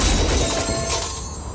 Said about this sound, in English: First, this is the sound of a brand new outdoor grill being hurled off a 20 story building.